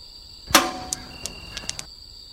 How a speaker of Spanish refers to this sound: Ey, ¿oíste eso? ¿Qué cosa? Cuando lanzaste la piedra al suelo sonó como un ruido metálico. ¿Y? Pues el suelo no es de metal, güey.